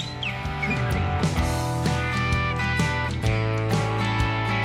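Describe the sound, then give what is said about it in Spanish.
A parrot mimics robotic electronic beeps and whistles, a steady run of buzzy tones and sharp clicks with a brief rising chirp near the start, loud with no talking. “solo sabe hacer esto, ¿eh? Pero lo repiten clavado.”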